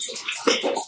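Wine pours into a glass, a steady burbling splash of liquid with a rising gurgle as the glass fills, lasting about a second with no talking.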